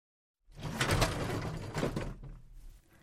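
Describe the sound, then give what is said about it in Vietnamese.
The door of a school's academic affairs office opens with a drawn-out, rough scraping creak that lasts a couple of seconds and then fades, with no one talking. “mở cửa phòng giáo vụ, bước vào thì thấy thầy Park ở đó.”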